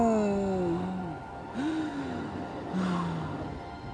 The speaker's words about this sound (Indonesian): Sesudah berkata begitu, dia menghembuskan nafas terakhir.